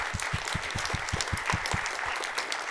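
An audience claps steadily for a few seconds, a dense patter of many hands with sharp, rapid smacks running throughout at an even, moderate loudness, with no talking.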